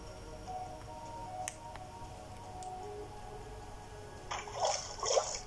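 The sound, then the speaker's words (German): Water in an underground cave: a few faint isolated drips over a low steady hum, then a louder burst of bubbling, splashing water in the last second or so. No one speaks. “Oh, mein Gott, da ist eine, eine unterirdische Wasserhöhle, glaube ich, oder?”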